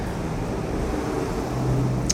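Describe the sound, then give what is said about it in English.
A steady low rumble of road traffic passing by, heard from inside a shake shop with windows all around in the town of Bulcay, Azuay, Ecuador, with a faint engine drone rising toward the end and a brief high tick near the close. “Well, right now, there's a little more traffic going by, and this place has windows all around.”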